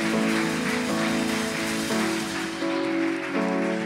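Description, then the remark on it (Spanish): A crowd claps steadily for several seconds, a dense, continuous patter of many hands, with sustained music playing underneath the applause. “¿Cuántos pueden darle un fuerte aplauso en el día de hoy?”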